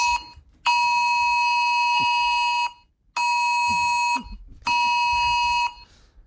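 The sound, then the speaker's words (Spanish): A loud emergency phone alert tone, sent in the Madrid area of Spain during flooding, blares in three long, harsh bursts separated by short gaps, a steady piercing multi-pitched alarm with no talking. “Esta era la alarma que asustó.”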